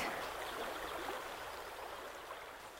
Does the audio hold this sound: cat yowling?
no